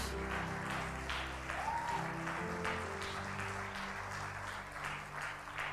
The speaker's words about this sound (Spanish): y le va a aplaudir, háganlo con gozo al Señor Jesús.